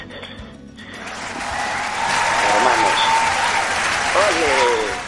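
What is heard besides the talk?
applause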